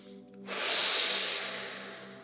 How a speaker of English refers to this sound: that you breathe in through the nose, then you push the breath out with the intention that you're letting the stress of the day go. So it goes like this.